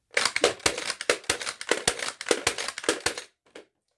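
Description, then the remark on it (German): A toy foam dart blaster, which can fire up to six darts per second, fires in a rapid burst, a fast string of loud mechanical thwacks for about three seconds, followed by one last isolated shot after a short pause. “Oder man kann wirklich sehr schnell schießen.”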